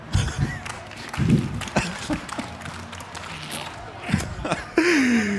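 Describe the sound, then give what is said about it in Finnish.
Scattered, uneven clapping from a small group at a question-and-answer session, mixed with laughter-like voices and murmurs, ending with a rising vocal whoop. “Missä mun aplodit on?”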